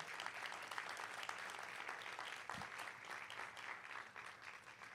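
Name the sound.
audience applause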